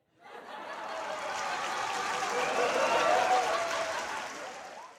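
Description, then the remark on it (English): A debate audience reacting to a remark by Lincoln bursts into applause mixed with laughter, a dense, steady crackle of many hands that swells in the first second, holds strongly, then eases slightly toward the end. “I'm not adding that laughter and applause for dramatic effect.”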